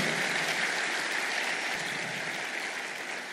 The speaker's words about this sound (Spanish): cuando le dan un aplauso al Señor por eso? Denle un aplauso a Jesús bien fuerte.